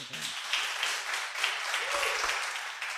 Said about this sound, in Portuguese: Muito bom, muito bom. Salva de palmas